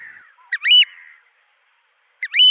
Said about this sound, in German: Etwas größer als eine Taube wird der Austernfischer. An seinem schwarz-weißen Gefieder und seinem roten Schnabel kann man ihn schon von weitem erkennen.